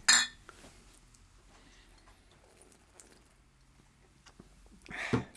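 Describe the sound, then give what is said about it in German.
Glasses clink together in a toast, a sharp bright ring at the start, followed by quiet room tone and another brief clattering knock near the end. “Prost. Prost.”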